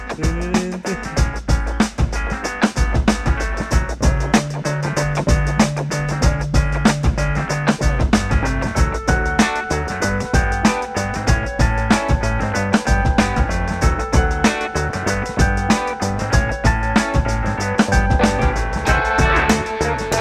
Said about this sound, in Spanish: Ya no dijiste nada, guau, corre intro.